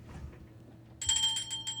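A small bell dings out suddenly after a moment of low background hum, ringing bright and high-pitched with several quick repeated strikes that shimmer on to the end.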